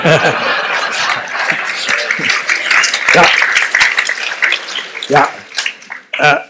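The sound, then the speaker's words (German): An audience applauds steadily for several seconds for a person who has just mocked the speaker, a dense crackle of many hands clapping, with scattered voices and a few chuckles rising through it before it begins to thin out. “Sie schmähen mich jetzt und Sie kriegen auch dafür Beifall, aber ich bin in der privilegierten Situation, Sie direkt zu fragen.”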